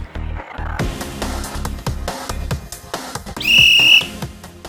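A referee's kick-off whistle blasts once, a sharp high-pitched tone held for nearly a second over a busy background of rhythmic thumping music.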